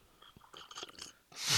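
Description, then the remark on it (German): Wet mouth and lip sounds click briefly, then a loud, airy slurp rushes in at the end as a drink is sucked noisily through the lips. “Komm, dann wird nochmal geschlürft.”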